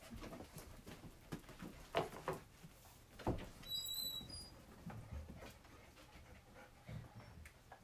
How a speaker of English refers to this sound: Okay, wait. just a little upstairs. Okay. Wait, let me lock, let out the dogs.